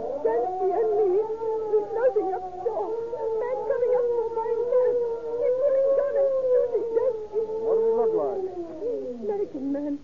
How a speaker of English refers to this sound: Oh, here comes the ambulance.